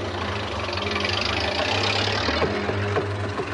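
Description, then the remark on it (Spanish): A tankette's engine rumbles steadily with a deep, low drone, growing slightly rougher as it pulls out of an English barracks, with no voices over the continuous mechanical noise. “Una tanqueta sale del cuartel inglés.”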